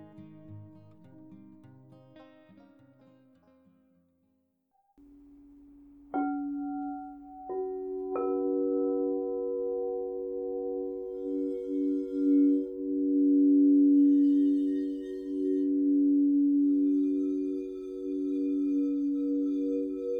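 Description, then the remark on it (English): An alchemy crystal singing bowl is struck, then struck again, its pure tone swelling into a loud, sustained hum that pulses and wavers steadily. A softer, fading melodic sound precedes it, with no talking. “Part 2 of my Alchemy Crystal Singing Bowls Collection”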